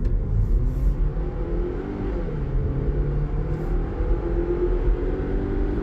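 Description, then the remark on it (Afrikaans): A 2-litre turbo petrol car engine, coupled to a seven-speed dual-clutch automatic gearbox and producing 155 kW and 325 Nm, rumbles steadily, its tone rising and easing slightly as it revs, with no voices over the continuous motor hum. “Die 2 liter petrol turbo gekoppel aan 'n sewe-spoed dubbelkoppelaar outomaties skop 'n lewendige 155 kW en 325 Nm uit.”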